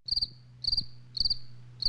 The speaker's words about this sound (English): Why, yes, more crickets.